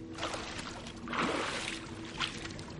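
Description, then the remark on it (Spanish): Water sloshes and splashes in a broad surge near the middle as a woman in a nightgown climbs out of an indoor pool, with lighter dripping and trickling before and after. “Sale del agua en camisón.”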